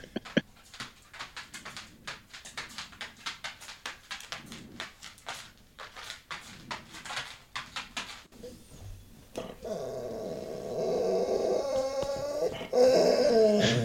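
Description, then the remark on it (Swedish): Dogs growl and whimper in a rapid, irregular series of short vocal bursts, followed by a steadier, louder stretch of whining and yelping near the end. “Nej, men annars eh, huvud, det återkommande huvudproblemet vi har, det är väl dina hundar,”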